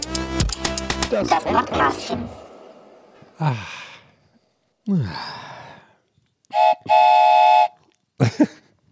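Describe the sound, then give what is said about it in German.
A train approaches, rattling loudly at the start, then a steady horn blast sounds near the end, with breathy sighs and gasps from a person in between. “Oh nein, oh nein, wir müssen los, der Zug kommt.”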